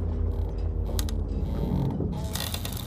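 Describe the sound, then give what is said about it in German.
Crooked wooden masts of an old ship with grey timbers and iced-over ropes creak and groan in the wind under a steady low rumble, with a few sharp cracking ticks and a brighter rasping strain near the end, sustained. “Schiefe Masten knarzen im Wind.”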